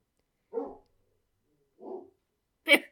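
Three separate dog barks spaced out over a few seconds, the first two lower and softer, the last one sharper and brighter, with quiet in between.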